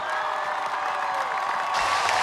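A large outdoor crowd at the Freedom Monument gives a sustained ovation for coach Luka Banki, steady dense applause mixed with cheering and whistles, loud and continuous throughout with no pauses.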